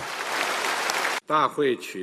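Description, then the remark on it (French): A dense, steady wash of applause from a large crowd of delegates at the 20th Congress of the Chinese Communist Party in Beijing, acclaiming Xi Jinping's re-election to a third term, fills the first second, cuts off abruptly, and a single voice then begins speaking. “Au centre, Xi Jinping, réélu par acclamation pour un troisième mandat.”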